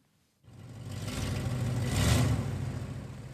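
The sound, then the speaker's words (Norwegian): The engine of an old rust-red 1978 Pontiac station wagon, driven to Stokstad's car scrapyard in Oslo, starts up after a brief silence and runs with a steady low rumble, swelling slightly midway before settling into a rough idle, with no talking. “har kjørt den rustrøde Pontiac stasjonsvogna si til Stokstads bilopphuggeri i Oslo.”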